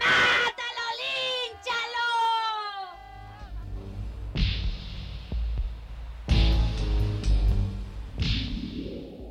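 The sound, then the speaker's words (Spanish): A woman screams and wails in loud, strained, wavering cries for a few seconds, followed by deep throbbing thuds and harsh rushing bursts. “La mujer estaba escupiendo lo peor de sí misma en cada alarido.”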